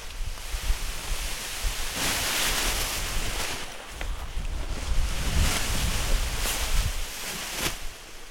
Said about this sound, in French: Et là, c'est difficile là aujourd'hui de décoller. Le vent est tourbillonnant. Non, non, le vent n'est pas tourbillonnant, mais il y a de l'est.